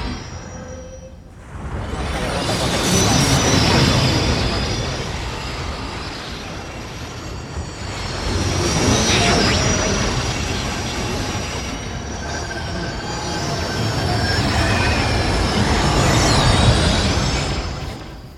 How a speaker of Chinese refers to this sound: 我们刚刚听到的《Ocean》是，呃，Justin Bennett 一九九二年同名的双屏影像作品，啊，他做了一个双屏的影像作品，其中的这个声音的部分，呃，使用的是无线电短波的一种转换器，他把无线电转短波转换成的这个声音